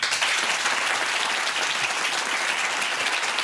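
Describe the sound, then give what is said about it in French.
Steady, dense applause from an audience, many hands clapping at once in a continuous wash of sound that holds at an even, fairly loud level throughout, with no voices standing out. “Colette, petit message, je t'aime très très fort et on t'applaudit très très fort”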